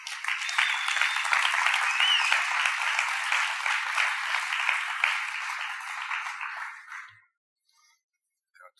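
Sustained audience applause from a sizable crowd as two people are called up onto the stage, dense and steady for about seven seconds before tapering off and stopping, leaving near silence.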